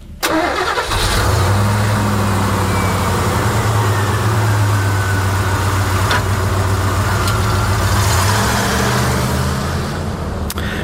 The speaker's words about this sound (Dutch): Het geluid van een pick-up truck.